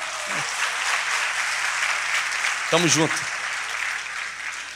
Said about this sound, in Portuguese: Pode aplaudir aí, ajuda o irmão ali.